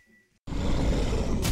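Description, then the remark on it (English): After a brief moment of quiet, a microwave's steady droning hum kicks in abruptly and continues loud and unbroken, with a heavy low rumble and no voices. “You can hear the microwave in the background.”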